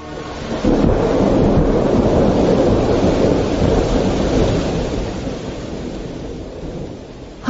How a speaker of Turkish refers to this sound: Hava da amma bozdu. Çok yağmur yağıyor.